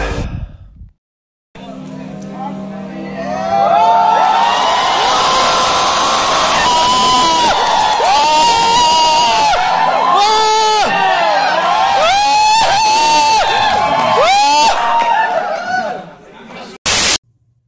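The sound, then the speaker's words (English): A large crowd cheers and shouts loudly for about fifteen seconds, many overlapping voices rising and falling in excited whoops over a dense roar, then cutting off abruptly. “If you heard that crowd reaction before this episode started, just know that you'll find out in the second half of this episode”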